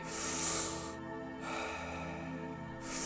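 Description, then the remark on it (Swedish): Deep breaths in and out, three long airy rushes following one after another, over a soft steady background hum with no talking. “In, ut. In, ut. Fem kvar nu. Vi ger allt vi har. Fullt fokus. Djupa andetag.”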